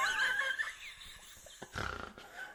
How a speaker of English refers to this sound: when you laugh, sometimes you snort like a pig.